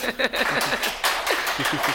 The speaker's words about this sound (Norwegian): Så syns jeg jeg skal gi dem en god applaus.